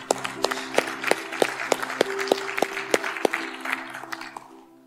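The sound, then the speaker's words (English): An audience applauds steadily, giving God a round of applause after a prayer, with sharp, evenly spaced claps standing out above the general clapping, while sustained keyboard chords play underneath; the applause fades away near the end. “Come on, let's give God a round of applause today.”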